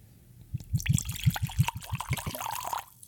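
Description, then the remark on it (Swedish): Liquor glugs rhythmically from a classic medicine-style bottle into a glass, a quick series of gurgling pulses that settle into a steadier trickle near the end. “Häller upp här.”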